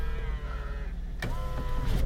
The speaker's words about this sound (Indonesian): Duh berisik banget ini mobil